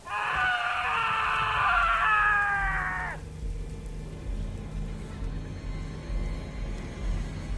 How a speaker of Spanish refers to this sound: Un grito deja paralizado a Francisco. Al parecer, los sacrificios y torturas comenzaron.